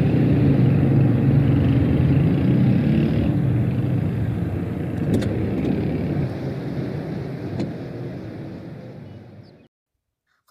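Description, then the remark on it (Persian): A car engine rumbles steadily with a low, continuous drone, a couple of faint clicks over it, then the sound cuts off abruptly near the end, as a passenger gets out of the car in an alley. “از ماشین پیاده میشه و با یک دلنگرانی اطراف کوچه رو نگاه میکنه ببینه که حالا مثلا کسی نگاه نکنه یا کسی نبینه که این چه ماشینی پیاده شده و با دلنگرانی رد میشه”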